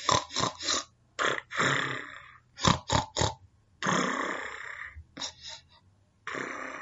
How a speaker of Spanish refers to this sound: La ovejita roncaba dulcemente.